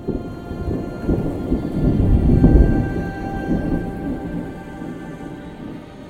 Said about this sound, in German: Allahs Donner hallte laut über die Ebenen, doch es kam kein Regen.